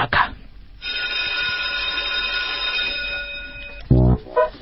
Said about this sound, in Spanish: le pido a la operadora y jefa de preceptores de este espacio que haga sonar el timbre, si oficial a una nueva clase de la escuelita de los sábados